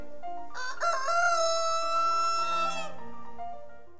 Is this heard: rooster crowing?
yes